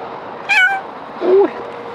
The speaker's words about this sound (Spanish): Uy, qué suave. ¿Tienes hambre o algo? Porque nos ha visto pasar de lejos y ha venido ya corriendo, maullando.